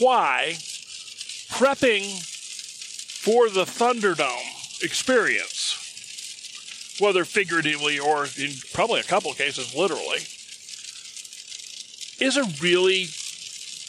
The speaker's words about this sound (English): And first of all, I apologize about the background noise in this. We'll uh, uh, we're driving in the car in the rain, and you're hearing pro- you're probably hearing raindrops. So I apologize about that.